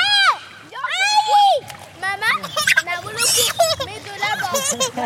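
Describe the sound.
Children shout and squeal in high, excited voices while water splashes and sloshes around them in a wading pool in the heart of a neighbourhood in summer, the shrieks rising and falling in quick overlapping bursts over constant splashing.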